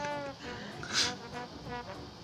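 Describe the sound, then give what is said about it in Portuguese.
A cat named Bolha meows insistently in the dark in a series of strained, wavering cries, fairly loud, with one sharper yowl in the middle and no talking. The cat is trembling, its fur standing on end. “Eu, eu, vou tentar acalmar o gato.”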